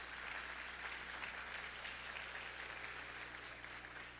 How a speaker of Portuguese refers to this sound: Vamos receber esse casal. Uma salva de palmas.